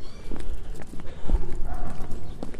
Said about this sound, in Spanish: Yo no uso tenis porque me gusta oír mis pisadas por debajo.